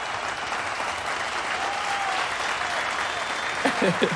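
Steady applause from a group fills the whole stretch, a dense even patter of clapping with a faint whistle-like tone midway and a few brief vocal bursts near the end.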